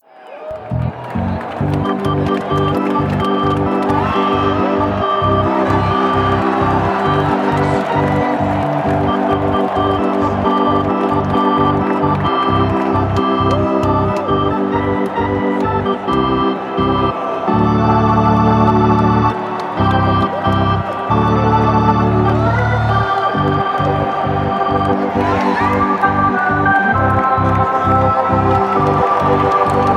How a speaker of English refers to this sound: sort of bittersweet because it's got crowd noise and uh, an organ, and it sounds very much like we're all at the ballpark. Unfortunately, the stat blast song is the closest we can come.